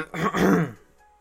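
human body sound, throat clearing

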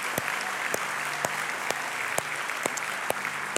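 crowd, church audience applause

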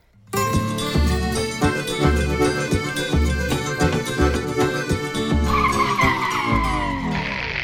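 vehicle, car brakes screeching

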